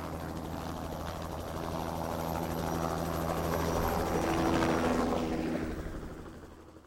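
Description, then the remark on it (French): A rescue helicopter passes overhead, its rotor chop and engine drone swelling steadily louder as it approaches, then fading as it moves away. No one speaks. “Si vous êtes perdu, en montagne par exemple, et que vous attendez les secours, la face or peut permettre de vous rendre plus visible, notamment par les secours en hélicoptère.”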